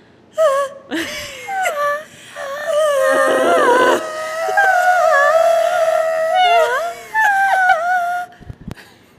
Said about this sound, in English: do your multiphonic. I love that one.